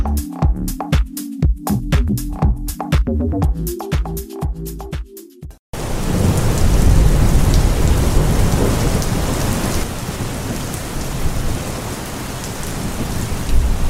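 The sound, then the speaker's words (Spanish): A short musical jingle gives way to steady, heavy rain pouring down on a rainy Saturday, a dense continuous hiss with low rumbling underneath that carries on without pause to the end. “hace 185 milímetros que espero la inspiración en este sábado lluvioso.”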